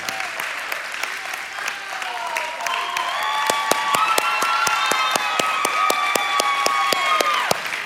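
A church audience bursts into sustained applause to welcome a new fusion coordinator to the stage, dense steady clapping mixed with loud whoops and cheering voices rising and falling, building slightly and holding for several seconds before tapering at the end.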